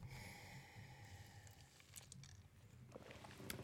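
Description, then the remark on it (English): Someone takes a long drink of fountain water from Qdoba, a steady series of soft, rhythmic gulps and swallows, ending with a slightly louder exhale or gasp. “I gotta take a drink of water. Listen to me drink.”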